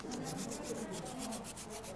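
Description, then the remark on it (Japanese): Sandpaper rubbing along the edges of a cut piece of wood to take off its sharp corners, in quick, steady back-and-forth strokes, about five per second, fairly quiet, with no voices. “このままだと、材ザイあの切った状態になりますので、はい、角が少しだけ触るとかあの痛い感じになってますのでちょっとこちらのねサンドペーパーで角を少し取っていただくとあの持つ時にやっぱちょっといいのかなっていう”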